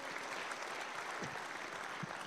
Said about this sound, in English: And we want to celebrate your uh, coming home today by letting it be known by saying amen and clap and applause. We welcome you all.